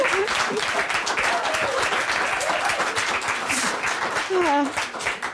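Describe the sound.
Sustained audience applause, a dense steady wash of many hands clapping at full volume for about five seconds, with a few voices and whoops rising briefly above it.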